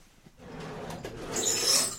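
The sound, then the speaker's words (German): Two wooden drawers scrape and rasp as they slide, building from a soft rub to a louder, hissy grinding toward the end, with no voices present. “Die andere Schublade. Nee, waren zwei Schubladen.”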